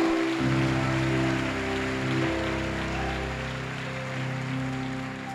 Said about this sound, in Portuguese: Vamos dar um aplauso.